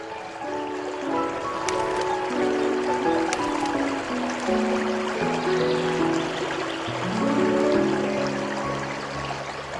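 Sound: flowing river water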